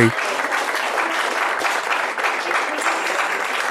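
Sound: applause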